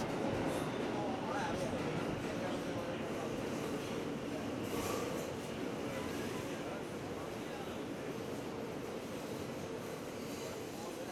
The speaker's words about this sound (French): This is a World Trade Center bound E train. The next stop is 50th Street.